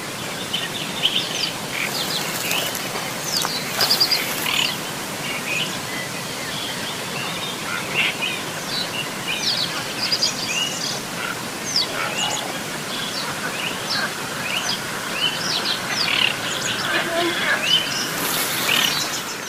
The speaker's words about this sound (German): Ja, und das ist meine Aufnahme und die ist insofern auch fast wichtig, weil dieses Weibchen eines Zwergsumpfuns oder Zwergralle, wie es früher auch mal hieß, das ist echt eine Rarität.